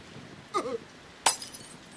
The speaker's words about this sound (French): Il a jeté sa bouteille contre le mur en briques